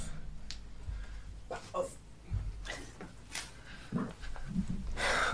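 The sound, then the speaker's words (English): A dog grows restless, with irregular bursts of snorting, panting and scuffling spread across a few seconds over a low background hum, as it tries to destroy some samples. “My, my dog is going wild.”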